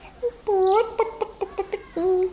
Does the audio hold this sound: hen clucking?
yes